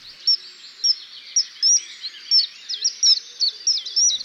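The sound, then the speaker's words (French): A small waterside bird about 16 cm long with a 4 cm bill, weighing 40 grams, repeatedly gives sharp, piercing high-pitched calls, a rapid series of shrill whistles in quick succession, loud with no other sounds, to face down a rival or drive an intruder from its territory. “Il émet son cri puissant aigu pour en imposer face à un congénère ou repousser un intrus de son territoire.”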